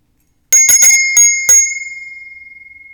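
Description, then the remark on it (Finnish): A bright metallic bell, rung to mark the start of a sitting exercise, sounds in five quick strikes, the last one leaving a clear high tone that slowly fades out. No voices are heard. “Eli kun mä soitan tätä kelloa, niin otat sellaisen hyvän ryhdikkään asennon.”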